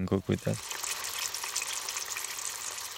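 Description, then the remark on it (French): Food sizzles and crackles steadily as it fries in a pan heated by biogas from a digester, fed through a hose to a burner stand, a continuous hiss that carries through the whole clip after a brief voice at the very start. “Un tuyau relié à un support permet de faire chauffer une casserole ou une poêle, de quoi préparer un petit déjeuner consistant à l'ensemble de la communauté,”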